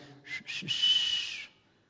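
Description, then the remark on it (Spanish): A person whistles a short signal call from outside, friends calling someone out to play: two quick chirps followed by one longer, sustained whistle, clear with no talking. “Y chiflaban así mis cuates desde afuera, así.”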